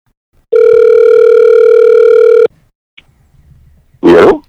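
A single steady electronic phone ring tone from an outgoing phone call sounds for about two seconds, loud, then cuts off; after a short pause a brief burst of noise like a line picking up follows.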